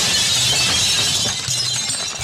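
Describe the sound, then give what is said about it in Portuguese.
Glass shatters loudly, a sustained bright crash of breaking shards lasting a couple of seconds with a low rumble beneath, no voices present. “vou agora adotar um, um efeito sonoro do tabu sendo quebrado.”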